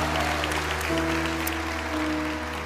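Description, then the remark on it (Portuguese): An audience claps hands in a dense, steady wash of applause that lasts the whole clip, with sustained keyboard chords holding underneath and no talking. “Se não aconteceu, bata palma pela fé, porque vai acontecer na noite de hoje.”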